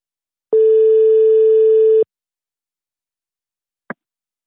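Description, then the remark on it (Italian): A single steady ringback tone sounds for about a second and a half on a phone line during an outgoing call to Tanino Liberatore's studio in Paris, followed by silence and then a brief click. “Tanino Liberatore, che chiamiamo nel suo studio di Parigi sperando che sia di buon umore”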